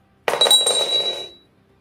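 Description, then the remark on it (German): Dice clatter across a table in one quick roll for damage in a game, a bright rattling burst that starts abruptly and fades out over about a second, with a thin ringing tone underneath. No one speaks. “Ich mach Schaden auswürfeln.”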